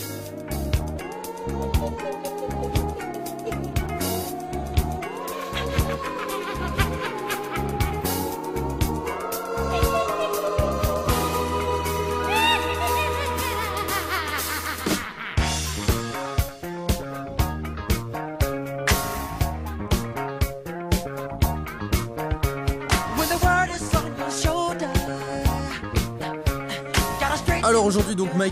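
An upbeat disco-funk pop track with a bouncing bass line, steady beat and layered synths and vocals, playing continuously and loud, shifting into a punchier, more rhythmic section midway.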